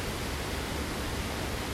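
rushing river water

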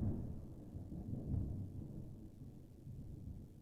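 thunder rumbling

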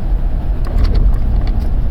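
car driving at night

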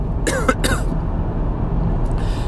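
cough

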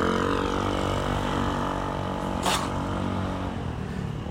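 motorcycle passing by

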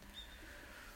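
bird calling outside

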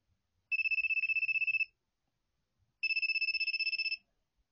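smartphone ringtone

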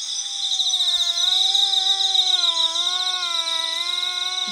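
insects chirping

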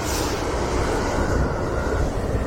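passing train

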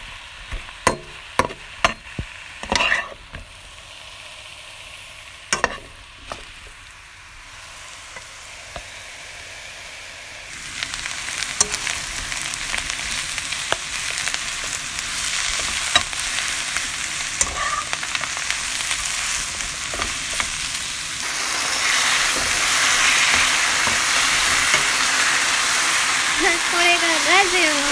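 food sizzling

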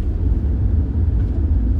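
car interior noise

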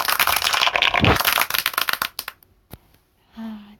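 hand clapping applause

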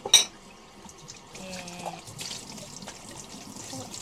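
running tap water

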